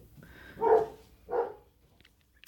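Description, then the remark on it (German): Two separate barks from dogs, a short pause between them, moderately loud against a quiet background, followed by a few faint clicks. “Ähm, Meine Hunde bellen.”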